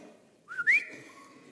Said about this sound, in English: And you whistle